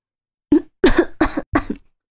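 A choking coughing fit after spitting out a mouthful of tea: four sharp, harsh coughs in quick succession, the first short and the next three longer and raspy, loud with brief gaps between them and no talking.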